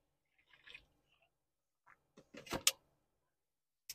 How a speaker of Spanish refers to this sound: voy a tomar agua yo.